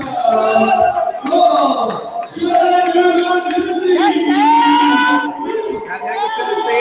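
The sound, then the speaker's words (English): A crowd cheers wildly as a 247-pound man from Kannapolis, North Carolina, is introduced. It is a loud, continuous roar of many voices shouting and whooping together, with overlapping yells rising and falling for several seconds without a break. “You hear the crowd going wild.”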